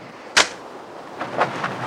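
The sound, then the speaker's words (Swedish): One sharp, loud slap across a man's face, followed a second later by a few fainter, duller smacks against a quiet background, with no voices. “Det slutar med att Max örfilar upp honom och skriker håll käften”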